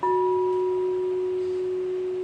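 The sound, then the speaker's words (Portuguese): A singing bowl rings out alone with a steady, sustained F tone, its bright upper overtones fading while the deep fundamental hums on loudly and evenly without decaying. “Então, simplesmente agora, né, eu vou mostrar a tigela aqui para vocês.”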